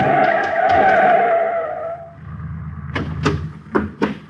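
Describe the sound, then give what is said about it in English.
A loud tire screech lasting about two seconds as a car turning the corner at a street-and-alley intersection skids, followed by a low rumble and several sharp thuds and bangs as it hits a pedestrian, with no voices. “He comes to the intersection of a street and alley just as a car turns the corner.”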